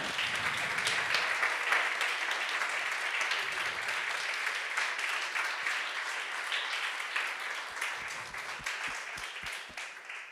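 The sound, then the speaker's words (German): A crowd applauds one another steadily for about ten seconds, a dense, even wash of many hands clapping that holds fairly loud throughout, with a few sharper individual claps standing out near the end. “Gebt euch doch nochmal gegenseitig einen Applaus.”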